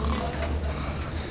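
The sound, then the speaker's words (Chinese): A person asleep in an office snores: a low, raspy snore that rumbles like a pig grunting, heard as one continuous, fairly loud stretch with a gravelly, snorting texture. “哎，哪来的猪叫声呀？”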